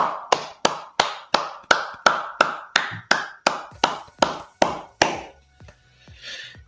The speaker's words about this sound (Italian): Quindi, vabbè, dai, un applausone a tutti voi che ci state seguendo. Grazie.